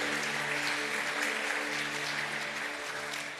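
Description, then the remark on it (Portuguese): An audience at a morning church service applauds the people serving, a dense, steady wash of many hands clapping at even loudness throughout, with a soft sustained musical tone humming underneath. “Uma salva de palmas para todos que estão servindo nessa manhã.”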